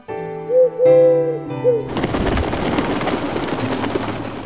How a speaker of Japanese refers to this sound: 丘の上の遊島には千羽の鳩が住んでいた鳩が一時に飛翔すると空は真っ暗になったそしてしばらくそれらの羽音が塔を神々しく支配した